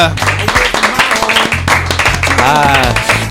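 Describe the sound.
Audience applause, a dense crackle of many hands clapping, runs steadily throughout, mixed with loud music carrying a deep bass line and a wavering voice-like melody.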